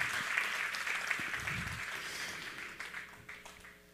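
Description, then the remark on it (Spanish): Sustained audience applause for young people who attended a workshop and camp, a dense crackle of many hands clapping at once, loud at first and gradually tapering off over a few seconds, with no talking over it. “Un aplauso para los jóvenes que fueron ministrados.”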